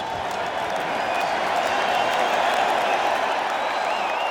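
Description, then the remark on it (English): A large home cricket crowd at the Oval Test against New Zealand roars and cheers continuously, with applause mixed in, as Beefy prepares for his first delivery. It is a dense, steady wash of noise that stays loud throughout without pause. “Finally, back in the team for the Oval Test with New Zealand, Beefy prepared for his first delivery, cheered on by a raucous home crowd.”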